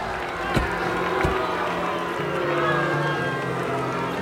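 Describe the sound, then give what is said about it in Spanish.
A car's engine hums low and steady as it pulls closer, half buried in the roar of a noisy crowd, with a couple of sharp knocks near the start. “Creo que está llegando el auto”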